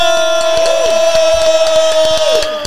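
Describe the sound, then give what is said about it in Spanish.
Loud audience cheering and applause welcoming a performer, running steadily throughout, with sharp clap-like bursts scattered over a sustained tonal hum, and no talking. “Pero lo reciben con un fuerte aplauso, mi gente”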